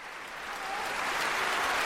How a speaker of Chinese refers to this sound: 这是来自东柏林音乐大厅的掌声。庆典结束，场内场外的人们久久不肯散去。据不完全统计，掌声、欢呼声和谢幕的时间超过了八分钟。